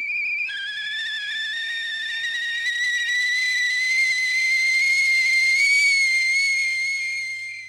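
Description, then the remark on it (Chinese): A kettle whistles on a blazing stove fire indoors, a shrill, steady high tone with bright overtones that creeps slightly upward in pitch and grows a little louder before fading at the end. No one speaks. “屋里的炉火烧得更旺了，水壶扑噜噜地响着。”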